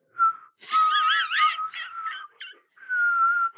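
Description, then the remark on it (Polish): A person whistles a signal for "godzina W" (W-hour), calling comrades to start the uprising: a brief steady note, then a loud warbling, trilling phrase, a few short chirps, and a final long held tone. No one speaks. “Gwiżesz teraz, godzina W!”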